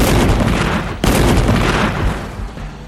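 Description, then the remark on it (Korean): Heavy, rumbling booms of cannon fire from Admiral Yi Sun-sin's warships, led by a turtle ship, off Sacheon, a dense roar with a sharp new blast about a second in, the barrage continuing loud before easing slightly toward the end. “대포를 발사하라!”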